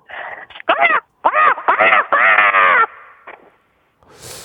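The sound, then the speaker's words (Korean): A phone caller, a dermatology nurse, imitates a crow with a series of loud, raspy, strained caws in quick bursts, sounding more like Donald Duck than a crow, over a faint phone-line hiss. “네, 이거는 거의 까마귀 아니고 도날드 덕이었어요.”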